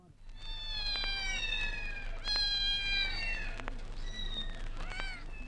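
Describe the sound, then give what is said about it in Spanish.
A domestic cat meows several times in a row, loud, with drawn-out, wavering cries over a low steady background hum and no one speaking. “y dice que ahora los gatos domésticos son hasta de 30 razas diferentes, todas variantes del mismo género, Felis catus.”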